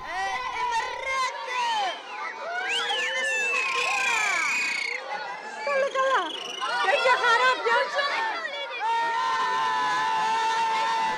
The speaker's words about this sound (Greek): Πέσαμε σε σχολείο που σχολούσε